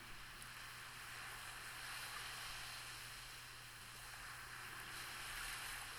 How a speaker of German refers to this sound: Du hörst die Wellen rauschen.